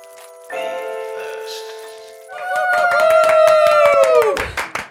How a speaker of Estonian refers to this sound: sportlastele kohaselt ikka korralik aplaus enne, enne starti